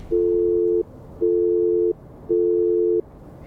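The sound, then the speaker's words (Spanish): A phone's disconnect tone after a young man hangs up a call: three steady, evenly spaced beeps at a single mid pitch, each lasting about two-thirds of a second, loud over a faint background hum. “Sin poder soportar la situación, el joven corta la llamada.”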